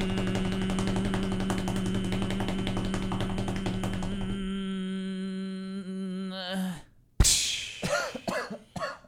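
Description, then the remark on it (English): A sustained, shimmering metallic cymbal wash rings loudly for about seven seconds, wavering as it fades and cuts off, followed by a sharp burst of coughing. “That's the cymbal.”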